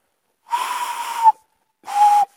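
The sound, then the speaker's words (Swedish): A person imitates a tawny owl with two breathy, whistle-like hoots, the first drawn out for almost a second, the second shorter after a brief pause, fairly loud. “Hur låter kattugglan? Vill alltså ha ett smakprov på det?”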